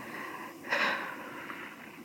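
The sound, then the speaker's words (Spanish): A single deep, sharp, anxious breath drawn in, rising quickly and fading within a moment, with only a low steady hiss before and after. “ok, la respiración.”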